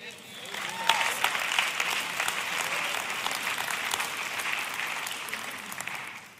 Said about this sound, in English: So that feels good to clap